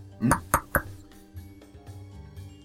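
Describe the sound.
Three sharp knocks with a staff on an office door marked Kapten Järn, in quick succession and loud, with murmured talking continuing in the background afterward.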